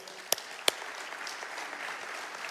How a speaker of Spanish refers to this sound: Buenos días, iglesia. Vamos a darle un fuerte aplauso al Señor.